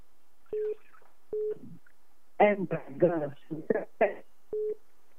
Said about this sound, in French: Oh, ça coupe. Parlez directement, ne mettez pas le haut-parleur sur votre téléphone. Mais parlez directement au téléphone, parce que là, ça coupe, on n'écoute pas bien.